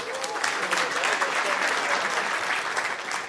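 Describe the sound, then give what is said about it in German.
Steady, moderate applause from an audience, a dense patter of many hands clapping without much energy or cheering, holding at an even level for a few seconds. “Geil auf wie halbgar der Applaus.”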